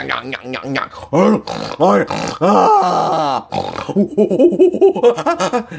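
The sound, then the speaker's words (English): A person makes a rapid string of loud grunting, hooting vocal noises imitating a monkey, with rising and falling pitch, some longer cries, and bursts of laughter-like sounds. “he made monkey noises afterward because he's acting like a he's acting like one of our ancestors right now.”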